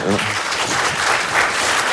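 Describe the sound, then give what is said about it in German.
An audience claps steadily for two seconds, a dense, even wash of applause holding at a fairly loud level, with faint voices mixed into the crowd noise. “ich wollte den Applaus nicht abschneiden für Heil Ja.”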